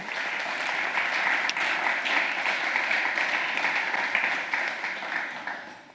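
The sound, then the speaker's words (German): Steady, dense applause from a crowd, a continuous crackle of many hands clapping at an even level that fades slightly toward the end. “Einen fetten Applaus für dich”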